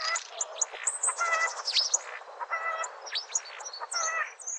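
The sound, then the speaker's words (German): A starling chatters continuously, mixing whistles, rattling notes and squeaky chirps that imitate other birds' calls, with no talking; a rare recording made by ornithologist Professor Hans-Heiner Bergmann. “Stare können zum Beispiel die Rufe von Bussarden oder Spechten nachahmen oder auch mal ein Huhn.”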